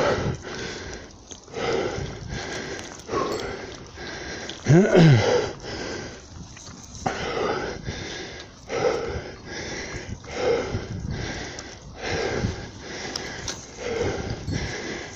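Heavy, labored breathing repeats in rough rhythmic bursts for the whole stretch, like someone out of breath after exertion, with a brief louder gasp midway.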